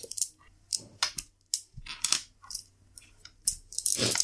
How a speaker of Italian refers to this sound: riprendo tutti i dadi bianchi.